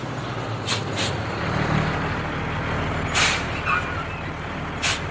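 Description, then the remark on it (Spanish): A truck rumbles steadily with low engine noise while sharp bursts of air-brake hiss cut in several times, short bright releases over the continuous drone as it comes to a stop, in a city area of cargo warehouses. “Oh, eh, camión, camión. Gente, por favor, paren.”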